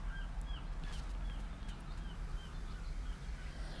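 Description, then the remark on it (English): Faint seagulls cry intermittently, several short calls scattered over a steady low outdoor rumble, with no one talking. “I hear the seagulls.”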